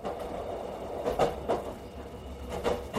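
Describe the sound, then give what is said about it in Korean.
A steady low rumble of a passenger train rolling along the rails from Maseong Station back to Cheongnyangni Station, with faint rhythmic clacks and brief swells of wheel noise every second or so. “마성역에서 다시 기차를 타고 청량리역으로 돌아오는 와중에 나는 아내로부터 더 많은 이야기를 듣게 되었다.”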